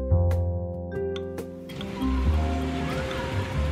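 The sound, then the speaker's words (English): A steady mechanical hum gives way to a loud, wet gurgling and sloshing as a machine, through a trocar (a long, skinny metal tube punctured into the belly of a body), sucks out organ fluids and bubbling gases, with bubbling churning underneath, continuous with no voices. “the machine punctures Pluto's belly with a long, skinny metal tube called a trocar, sucks out all his organ fluids and bubbling gases”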